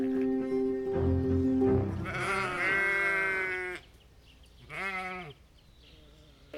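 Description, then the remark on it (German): Several horned sheep on a farm bleat: a long, wavering bleat opens, followed by another strong one and a shorter, fainter bleat near the end, with quiet outdoor background between calls. “Wir gehen jetzt runter zu euren Schafen und gucken uns das, wenigstens das Leben mal aus der Nähe an.”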